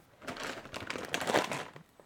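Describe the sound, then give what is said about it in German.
Crinkly plastic rustling and crackling for about two seconds, with brief sharp snips mixed in, as scissors cut off the top third of a crisp chip bag. “So, sie, sie nimmt die Schere und schneidet gekonnt die obere, das obere Drittel der Tüte weg.”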